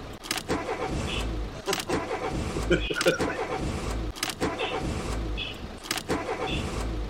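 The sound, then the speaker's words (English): Racing car engines start up and rev loudly, with several sharp roaring bursts rising and falling over a steady, rumbling engine drone throughout. “Start your engines.”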